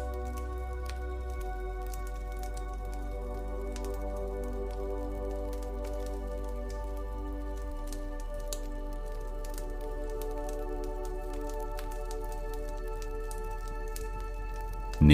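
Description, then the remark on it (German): A crackling campfire pops and snaps irregularly throughout, small sharp crackles scattered over a steady, soft sustained musical drone, with no one speaking. “Höre einmal genau hin, wie es knistert.”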